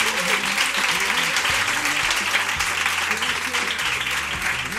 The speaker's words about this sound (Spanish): Un aplauso.